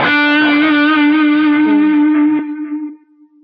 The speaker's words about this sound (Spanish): A mí me gusta mucho, por ejemplo, esto de, de, de cuando hago una nota larga, digamos ponerle delay así y dejar que la nota se mueva así suave. Y ahí ustedes oyen que el delay sigue sonando.